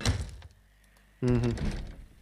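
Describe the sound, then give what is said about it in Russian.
A locked house door in a video game fails to open as the player tries to open it: two short dull thunks with a rattle, the second followed by a brief low buzzing tone, heard alone. “Открыть дверь. Не лезет. Она закрыта.”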